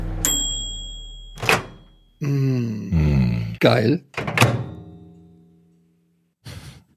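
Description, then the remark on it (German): Microwave oven sounds: a high sustained beep, a solid door thunk, then a bright bell-like ding that rings and slowly fades. Brief murmured talk falls between them. “Das war eine Mikrowelle.”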